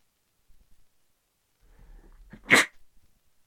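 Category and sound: human body sound, sneeze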